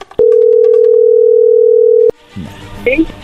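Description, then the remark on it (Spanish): A loud, steady telephone dial tone as a call is being dialed holds one low, unwavering pitch for about two seconds, then cuts off abruptly, followed by a brief stretch of soft background voices and shuffling. “A ver, no haga ruido, ahí se está marcando.”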